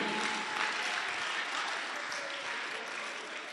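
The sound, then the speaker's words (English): An audience applauds steadily for a few seconds, a dense, even wash of many hands clapping at once with no pause or swell, and no one speaking over it. “Clap for me, clap for me.”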